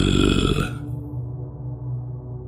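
A low, eerie moaning groan drones on for a couple of seconds, deep and wavering, after a brief harsher burst at the start; steady and fairly loud with no speech.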